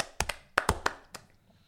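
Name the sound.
hands clapping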